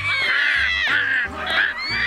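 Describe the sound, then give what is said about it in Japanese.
Ducklings playing at a riverside in the early morning quack in a quick, overlapping series of loud nasal calls, with a low hum underneath and no talking. “川辺ではアヒルの子供たちが遊んでいてその中にはよく見知った姿がありました”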